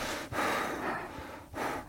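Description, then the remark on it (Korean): Heavy breathing with a muffled, airy rasp through a thick winter mask: two long, loud breaths separated by brief pauses, with no talking. “어, 숨소리가 굉장히 리얼했어요.”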